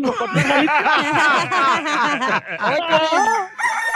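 A busy flurry of chicken clucks and cackles with a rooster-like crow, loud and close, continuing without pause for several seconds, like a barnyard sound effect.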